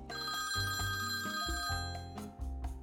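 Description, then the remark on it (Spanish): A telephone rings for an incoming call with a bright, melodic electronic tune, several quick notes stepping up and down, loud, with no one talking over it. “Pero antes, vamos a recibir una llamada de teléfono de mi peluquero”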